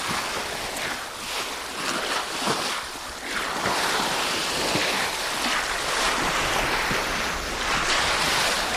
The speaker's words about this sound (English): There was a bit of a swell, and it was the sound of the ocean lapping against the side um, of this iceberg. Creating this really um, sandpaper